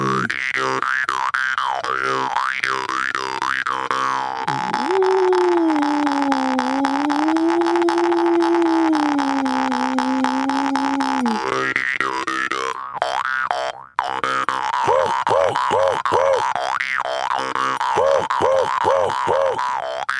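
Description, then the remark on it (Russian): A loud jaw harp plays alone, its twangy wah-like pulses giving way to a long bending drone, then choppy croaking bursts that imitate a raven's calls. “Голос ворона Кутх”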